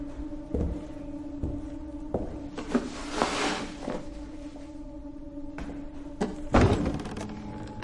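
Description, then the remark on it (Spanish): A heavy wooden chest lid is lifted open after a long cushion covering it is removed, amid a few dull knocks and thuds, with a brief soft rustle in between, over a steady low hum. “Se acerca, quita el largo cojín que cubre un arcón y lo abre.”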